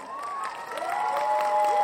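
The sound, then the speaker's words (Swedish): A crowd claps and cheers steadily, with sliding whistles rising and holding over a dense patter of hands that grows slightly louder toward the end. “Vi förtjänar en applåd här.”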